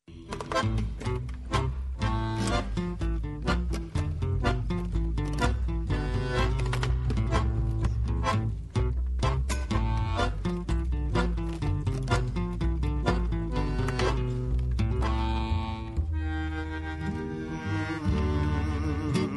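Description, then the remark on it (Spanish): A guitar plays alone the opening of a tango that sets a poem to music, with steady plucked and strummed notes over deep bass lines, loud, continuing without pause and with no singing or talking. “vamos a escuchar la guitarra primero, em, donde musicaliza a Lorca”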